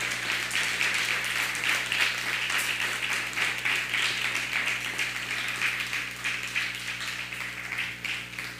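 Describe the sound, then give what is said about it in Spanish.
A steady wash of audience applause given on a count of three with a Shabbat Shalom greeting, many hands clapping at once in a dense, even patter that holds for several seconds without any talking. “Le damos un fuerte abrazo, un, un, fuerte aplauso y un Shabbat Shalom a la cuenta de 3, 1, 2, 3.”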